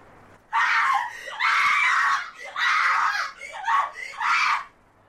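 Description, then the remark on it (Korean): A person screams from a building a couple of doors down across the street at about 4 p.m., in long, drawn-out wails, four or five strained cries running almost together with only brief breaks, loud and piercing for about four seconds before falling silent. “잠시 후 또다시 비명이 들려왔다.”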